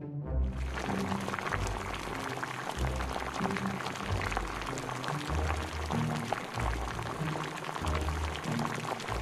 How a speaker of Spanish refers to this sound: El agua de la infusión comienza a hervir a borbotones.